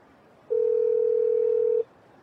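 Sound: telephone call ringing tone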